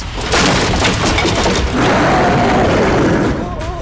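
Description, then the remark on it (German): A loud, sustained splintering crash as a wooden house door onto a veranda is smashed to pieces, with broad cracking and breaking noise over several seconds and a second burst of debris partway through. “Die Tür schlug hinter ihm zu, um gleich darauf wieder aufzufliegen, in Stücke zerschmettert.”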